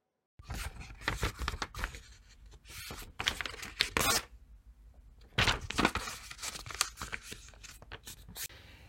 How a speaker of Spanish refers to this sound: En la actividad, la fuente sonora era la hoja de papel y pudiste reconocer algunos de los sonidos que puede emitir esta fuente sonora.